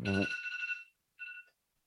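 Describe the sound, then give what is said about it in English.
A phone alarm rings in two bright electronic bursts: a longer tonal chime that fades out, then after a short pause a second, briefer ring at the same high pitch. “Um, but that's literally what my alarm says to do right now.”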